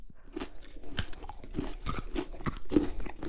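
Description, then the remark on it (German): Someone bites into crunchy food and keeps chewing, a quick series of crisp, crackling crunches repeating in an uneven rhythm with no talking. “Ich beiße auch mal rein.”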